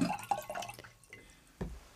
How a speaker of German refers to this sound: Du hast über den ganzen Tisch gestrullert.